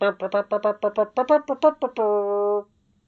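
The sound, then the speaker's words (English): A bugle blasts a quick run of about ten short, punchy notes, then holds one bright, steady tone for over half a second before cutting off. It is loud and alone. “It's a bit like a trumpet, but it doesn't have any keys on it, and you make noises just by blowing it, but a skilled bu- bugler can make several different tones.”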